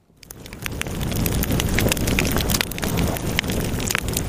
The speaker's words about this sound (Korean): 이게요. 아, 이렇게 이 불펴놓고. 모닥불 피워놓고. 마주 앉아서. 이 모닥불 소리예요. 무닥불 소리입니다.